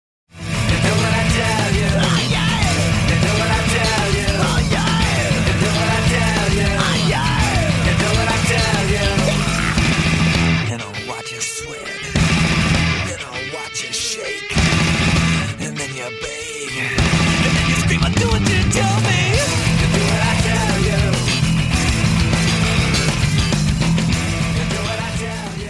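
Loud, dense band music with heavy distorted guitars, thumping bass and drums, punctuated by shouted vocals; the full mix drops out in brief stuttering breaks midway before crashing back in.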